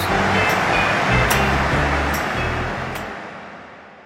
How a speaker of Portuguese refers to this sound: Tá ouvindo aí ao fundo a torcida? É isso aí, mais uma vez estamos gravando diretamente aqui do estádio Valdemar Teixeira de Farias, o Farião em Divinópolis, sede do Guarani,